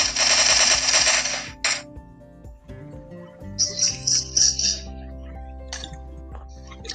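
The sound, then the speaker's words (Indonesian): Video game gunfire rattles out in a long, loud automatic burst, then a short second burst, followed later by a quick series of sharper shots over a steady low game hum, as someone in the game shoots at the player. “Eh, eh mampus ada yang nembakin gue, goy.”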